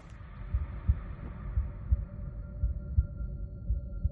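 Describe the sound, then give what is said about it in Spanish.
A steady human heartbeat, as included on the special discs carried by the Voyager spacecraft, its paired lub-dub thumps repeating about once a second, low and muffled, over a faint sustained hum with no voices. “el llanto de un bebé y el latido de un corazón.”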